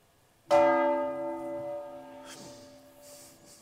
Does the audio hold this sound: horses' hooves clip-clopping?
no